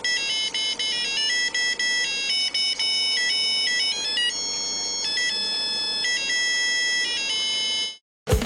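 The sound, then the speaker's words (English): A digital watch alarm, on something like a Casio watch, beeps out the melody of "Land of Dixie" in thin, high electronic tones, note after note at steady volume for about eight seconds, then cuts off abruptly. No one speaks. “and that is a sample of it playing uh, "Land of Dixie" as as as as the alarm.”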